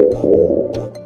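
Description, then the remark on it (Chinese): A loud, low gurgling stomach growl from a hungry stomach after playing ball rumbles for about a second, bubbly and uneven in texture, with no voices over it. “我不饿，是你的肚子在叫吧？”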